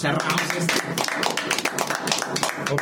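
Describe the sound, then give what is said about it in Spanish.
A burst of applause, with many hands clapping in a dense, irregular patter. Voices carry on talking over the clapping the whole time. “Un aplauso.”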